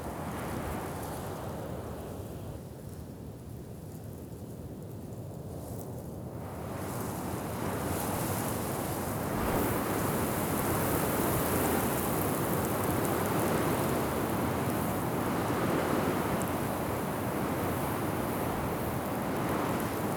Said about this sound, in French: de petit brouillard de sable qui s'élève et qui parcourt la dune, tout en... Ça, fait comme un petit rideau, un petit voile de brume, mais cette brume c'est du sable et qui remonte la dune, c'est assez euh, incroyable, tellement le vent est puissant.